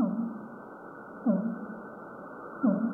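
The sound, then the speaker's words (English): A fin whale call: short, low downward-sweeping pulses repeat about every second and a half over a steady murky ocean hiss, with no voices present. “she knows it's a fin whale.”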